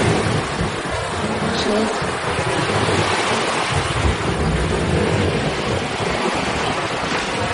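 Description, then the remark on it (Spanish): Waves wash onto a shore in a steady, loud, rushing roar that fills the whole stretch without pause, with low rumbling swells underneath and no voices standing out. “Más tarde ambos están desnudos, tumbados sobre una manta a orillas del mar.”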